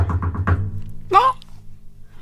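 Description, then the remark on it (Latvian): Three or four quick, evenly spaced knocks by a person's hand on a room door, over a low steady hum, followed by a brief voice-like sound. “un es pēkšņi tā kā sadzirdu no vienas skaita, tā kā tur es pieklāvēju pie tā skaita durvīm.”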